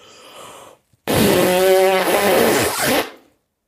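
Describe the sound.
A loud, buzzy fart noise made with the mouth, a single sustained raspberry lasting about two seconds with a fluttering, wavering tone, preceded by faint breathy noise.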